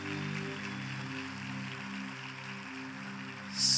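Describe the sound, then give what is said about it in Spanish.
A crowd claps steadily as applause to the Lord at an evangelical gathering, in a dense, rain-like wash of applause, with a sustained low keyboard chord held underneath throughout. “En el nombre de Jesús, hará el mejor aplauso al Señor.”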